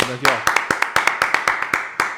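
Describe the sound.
Steady hand clapping, about ten sharp claps in an even rhythm, like a small group applauding. A brief voice is heard at the very start.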